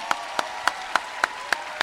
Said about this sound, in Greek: Και τώρα θέλω ένα τελείω φρέσκο, εντελώ δικό του καινούριο χειροκρότημα